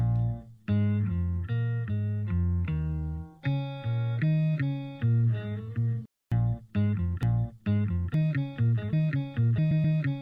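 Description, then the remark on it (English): A short instrumental music sample plays in several back-to-back versions, each shifted to a different pitch and altered in pace, with a brief cut between them. It is loud and clear, and no one talks. “Well, for a start, you can change the pitch, the notes, the, the tone of it, like this and change it to this, or even this, or you can even stretch it.”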